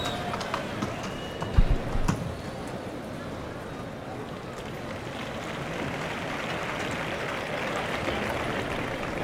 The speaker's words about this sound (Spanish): Caballo tremendo, ahí sale de nuevo.